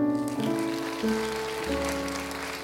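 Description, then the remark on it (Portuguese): An audience applauds to celebrate the Lord in a steady, dense patter of clapping, with sustained keyboard chords shifting underneath throughout. “Você pode celebrá-lo? Você pode aplaudi-lo?”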